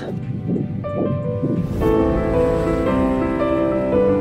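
A fetal heartbeat on a monitor: rapid, muffled whooshing pulses in a steady rhythm, soon swallowed by sustained music swelling over it.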